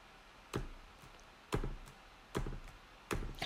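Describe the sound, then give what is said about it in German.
Four separate computer keyboard key clicks, spaced about a second apart with slightly uneven timing. Each is a sharp tap, with quiet background between them and no talking. “Hä, ist irgendwas mit deiner Tastatur kaputt?”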